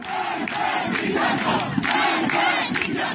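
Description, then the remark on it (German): A large crowd of protesters on their way to Sarkis chants slogans together outdoors, calling "Death to the dictator", loud and continuous, with rhythmic surges of shouting voices filling the street throughout. “Hier hören wir gerade Protestierende auf dem Weg nach Sarkis, wie sie Tod dem Diktator rufen.”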